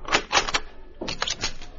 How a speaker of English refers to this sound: Judd Emery opened his ranch house door in response to knocking